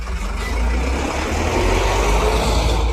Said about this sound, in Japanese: ゴミ収集車が前を通りました。